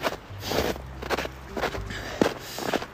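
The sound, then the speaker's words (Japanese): Footsteps crunching and sinking into deep snow, a steady series of about six muffled, soft thuds with crisp crunchy edges, spaced roughly half a second apart with no talking. “でもね今もズボズボ足はめながら歩いてるこの雪の上ちょっと僕の今の状況じゃ歩けないっていう判断ですよね”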